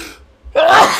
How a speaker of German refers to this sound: Ähm, Gesundheit, Gesundheit